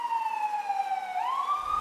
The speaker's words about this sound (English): I don't think we've ever done a podcast inside a bay uh, yeah, an ambulance bay, an ambulance at a bay, hospital, a, garage at a hospital, and, and the ambulance just took off.